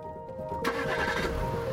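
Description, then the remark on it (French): A car engine cranks and catches, then settles into a steady idle with a low rumble and some mechanical whine; one of two convertibles leaving first to put fans and journalists on a false trail. “Deux voitures partent d'abord pour lancer les fans et les journalistes sur une fausse piste.”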